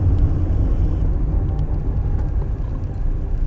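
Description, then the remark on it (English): Steady low road rumble from inside a car driving north in traffic on the 70, 71 freeway toward Irwindale, with a continuous engine and tire drone filling the cabin and faint whooshes of passing traffic; no one speaks. “Uh, just hit traffic. I am going north on the 70, 71 freeway.”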